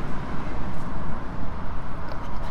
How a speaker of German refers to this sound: Er läuft sehr, sehr ruhig, aber trotzdem hat man ja doch ein gewisses Fahrgeräusch und ein Motorengeräusch in, in der Fahrgastzelle.